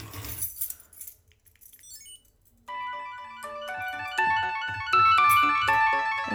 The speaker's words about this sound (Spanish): Esto que, esto que parece una alarma para levantarte por las mañanas, pues es el chipolo.